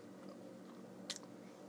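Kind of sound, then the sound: food or drink, chewing food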